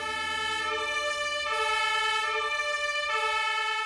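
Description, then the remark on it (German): A fire engine's two-tone siren alternates steadily between high and low pitches, each tone held about a second and a half, loud with no voices. “wenn ein Kind diesen roten Kasten mit Rädern und Tatütata erlebt, dann wird es in Zukunft alle Feuerwehrautos in jeder Situation erkennen.”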